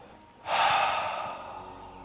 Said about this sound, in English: Take a normal breath in through the nose. Exhale through the mouth